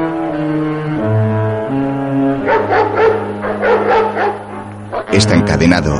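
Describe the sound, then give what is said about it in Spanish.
A guard dog watching over a warehouse at a cargo ship dock barks in several loud bursts, preceded by a few seconds of sustained, shifting tones, with a final sharp bark near the end. “hay un perro guardián vigilando el lugar.”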